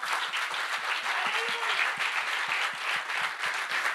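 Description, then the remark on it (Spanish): An audience breaks into steady applause, many hands clapping in a dense, continuous patter that holds an even loudness throughout, with no voices rising above it. “Adora si le va a dar el aplauso.”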